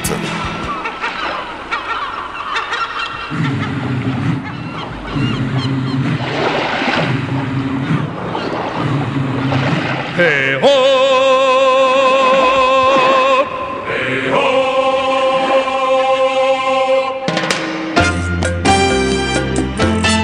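An upbeat 1987 French pop song plays loud, starting with a dense, washy texture before bright sustained synth-like chords and a steady, bouncy rhythm take over.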